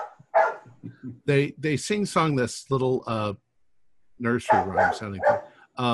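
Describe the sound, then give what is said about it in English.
Dogs bark in the neighborhood in the background, a few short yaps, while a person talks over them in the foreground. “Sounds like a dog. There's dogs barking in this neighborhood.”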